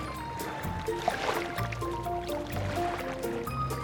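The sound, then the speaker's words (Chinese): Ocean waves splash and slosh steadily at a moderate level, with a gentle melodic tune playing over the water throughout. No one speaks. “在海边休息的时候呢，他留意到了哗啦啪啦的海浪声”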